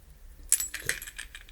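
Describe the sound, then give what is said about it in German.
A bunch of keys jangles, a quick series of bright metallic clinks and rattles that starts abruptly and continues for about a second, with no voices. “befindet sich an einem dieser Bunde vielleicht der Schlüssel für die Moorleichenvitrine?”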